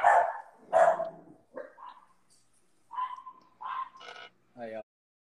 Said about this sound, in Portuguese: os cachorros são malucos. Para carro aqui na frente de casa, buzina alguma coisa já começa.